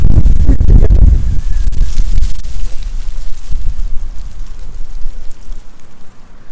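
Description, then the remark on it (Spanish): A strong gust of wind roars in with heavy buffeting for the first second or so, then keeps blowing steadily as dry leaves rustle and hiss throughout, in a park in Bogotá, Colombia, in August, with no one speaking. “Y con este ventarrón que pasó,”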